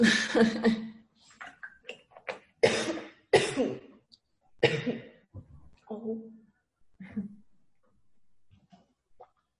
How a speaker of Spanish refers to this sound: llevo todo el tiempo bebiendo, lo que pasa es que me viene la tos a tope.